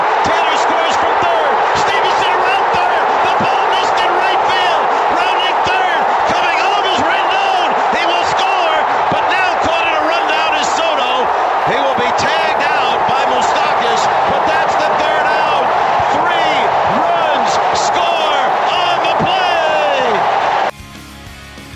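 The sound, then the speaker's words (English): A big baseball stadium crowd roars loudly and steadily after a line-drive base hit to right field, a dense wash of cheering voices with scattered claps and shouts, cutting off abruptly just before the end. “Every one of that last members of that crowd roaring there, bandwaggers.”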